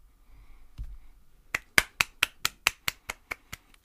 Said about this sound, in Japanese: 拍手するとこちゃうやんけ。